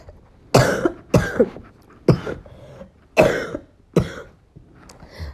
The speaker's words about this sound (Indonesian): maaf kalau keganggu sama batuk aku karena aku lagi gak enak badan